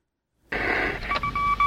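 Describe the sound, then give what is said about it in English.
Morse code beeps, a few short high tones pulsing on and off through a steady hiss of radio static, fairly loud, with no voices; the same signals repeat over and over, unlike a regular Morse code broadcast. “What's interesting is it doesn't sound like a regular Morse code broadcast.”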